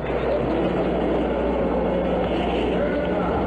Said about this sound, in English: Three, two, one zero. All engine running. Liftoff. We have a liftoff. 32 minutes past the hour. Liftoff on Apollo 11.